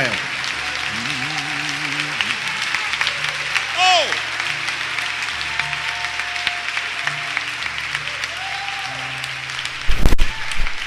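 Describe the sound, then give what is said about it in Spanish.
A large audience at a sermon applauds steadily with scattered shouts of amen and cheers rising over the clapping, responding to the preacher's call for a loud amen from all who trust in Jesus, a dense, continuous roar ending with a brief louder burst. “Yo quiero que en este lugar todos los que confían en Jesús me den un fuerte amén.”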